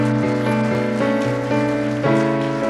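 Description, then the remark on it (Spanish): A church audience claps steadily in praise of God, a dense crackling wash of applause blended with sustained keyboard or organ chords that shift every quarter second or so; no one speaks. “Y le da un aplauso al santo, santo, santo.”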